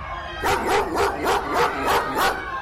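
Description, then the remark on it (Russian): A dog barks about seven times in a quick, steady rhythm, each bark loud, with a low background rumble running underneath throughout. “и вот бежит она, что есть мочи, но собака не отстает.”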